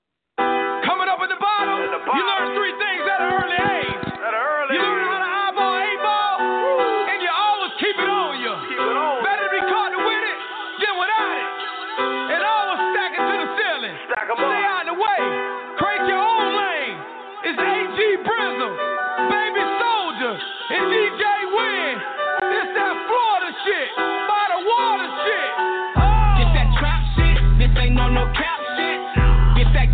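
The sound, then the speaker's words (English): A rap track plays at steady volume, with a bright, chiming synth melody and a rapped vocal throughout. Heavy, booming bass kicks in near the end. “This is ….”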